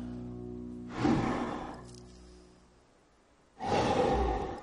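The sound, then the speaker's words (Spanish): Two slow, heavy breaths, each a loud airy whoosh with a pause between them, over a steady low mechanical hum, from a man lying on a hammock breathing through a portable oxygen device. “Respira tumbado conectado al oxígeno. Su respiración se intercala con imágenes de Miss Universo desfilando.”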